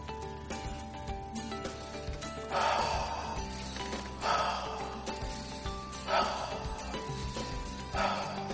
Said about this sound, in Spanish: Estoy inspirando por la nariz, exhalo por la boca.